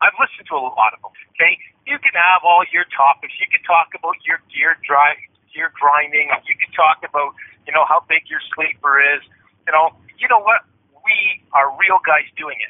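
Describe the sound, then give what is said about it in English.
A man talks steadily over a narrowband cell phone conference call, his voice thin, tinny and muffled, with the boxy, compressed quality of a phone line and no fullness or sparkle. “It sounds like this because we're talking on a conference call on cell phones.”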